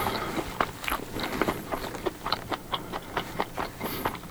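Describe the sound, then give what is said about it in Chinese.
Crisp, crunchy chewing of a very crispy food with a fried bread outer layer, a steady series of sharp bites, about two or three per second, fairly loud and heard alone without any talking, during a radio show. “大家可以先听一下我咀嚼的声音，不好意思啊。”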